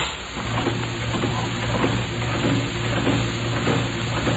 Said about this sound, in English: Air. You hear me? Pumping the air out of the room.